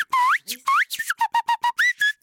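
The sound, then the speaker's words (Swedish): A person whistles a lively phrase: a couple of rising swoops, then a quick run of short, evenly spaced staccato notes, ending in two more upward slides. Loud and clear, no talking. “Vad sjukt vilken bra vissling!”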